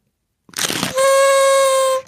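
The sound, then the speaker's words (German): A party blowout horn, used to celebrate a birthday, unfurls with a brief papery crinkle, then sounds one steady, loud, buzzy reed tone for about a second before cutting off, with no voices. “ich mag so ein bisschen das Ein- und Ausrollgeräusch noch, noch mehr als die Tröte selber.”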